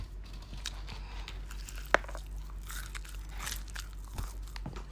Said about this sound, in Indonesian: mantep banget gak mau coba denger gak nih crispy banget nih guys